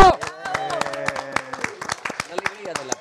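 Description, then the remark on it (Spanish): A short burst of brisk, uneven hand clapping from a few people, fairly loud, with voices calling out and chattering underneath throughout. “Aplausos.”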